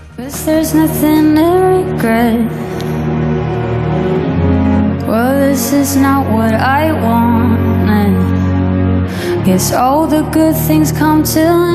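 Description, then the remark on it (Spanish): A Eurovision pop song, an entry chosen at Melodifestivalen, plays loud and continuous, a singer's melodic vocal line gliding over full, steady instrumental backing throughout. “que por este título podría ser la canción de cualquier año.”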